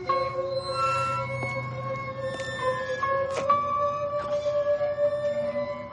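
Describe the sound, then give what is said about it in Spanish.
A barred iron gate swings open after a request over the intercom, with a drawn-out metallic squeal, its high whining tones sliding in pitch over several seconds, with a few clanks and rattles mixed in and no one speaking. “La puerta enrejada se abre.”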